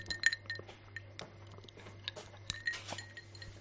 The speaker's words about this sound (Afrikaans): ja, ek vat 'n sluk.